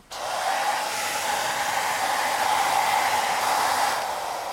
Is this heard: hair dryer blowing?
yes